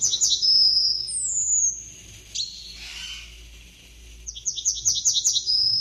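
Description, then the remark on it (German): A yellowhammer sings alone, clear: a quick run of repeated high chirping notes drawn into a long thin whistle, then the rapid note series starts again. “Lass die Goldammer. Lass ja. sie mal singen.”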